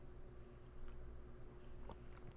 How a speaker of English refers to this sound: Let's take another sip of coffee.